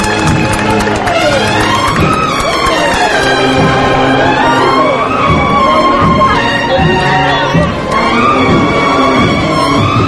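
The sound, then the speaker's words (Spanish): A street crowd bursts into loud, sustained applause and cheering as the procession float (paso de misterio) of the Santa Cena is lifted: a dense wash of clapping and voices that stays strong for the full ten seconds with only a brief dip near the end. “el Cordero que se sacrifica para la redención de la humanidad, subiendo a pulso y que está representado en ese llamador del paso de misterio, que ya está arriba y que arranca el aplauso de la carrera.”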